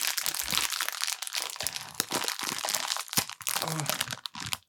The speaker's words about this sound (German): Äh, reiß mal bitte die Tüte auf, das wird jetzt gleich mal verkostet, weil ich habe richtig Bock darauf.